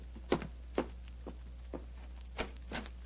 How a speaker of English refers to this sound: I can hear footsteps on the stairs.